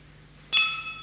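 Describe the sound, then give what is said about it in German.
A single bright clink of glasses striking each other, followed by a clear ringing tone that slowly fades. The sound stands alone against a quiet background, with no voices. “Man knallt gegeneinander und es sind nur noch, was übrig bleibt, ist ein Scherbenhaufen.”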